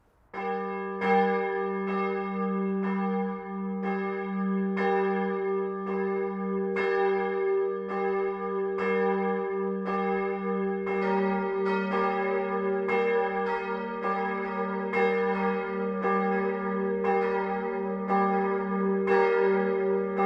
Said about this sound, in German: Es ist 12 Uhr. Das Mittagsläuten kommt heute von der katholischen Pfarrkirche St. Bruno im unterfränkischen Niederwern.